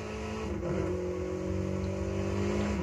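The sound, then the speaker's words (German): A video game car engine revs steadily, its low droning pitch rising and holding as the car accelerates, with a continuous buzzy hum throughout and no voices. “Also, wir fahren mal weiter.”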